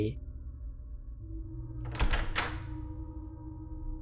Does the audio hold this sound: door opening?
yes